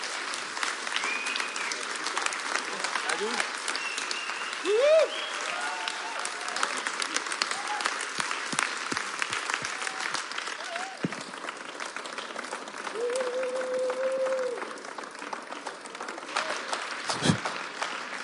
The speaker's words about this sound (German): lass uns mal aufstehen und mit einem riesen Applaus begrüßen. Schön, dass du da bist.